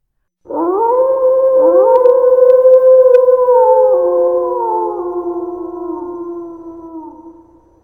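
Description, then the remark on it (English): A loud, drawn-out animal howl swells in abruptly, with overlapping voices sliding up and down in pitch, then slowly fades over several seconds. No one is speaking. “I heard the yowling, of course, so I took a quick turn around a tree and headed back to them.”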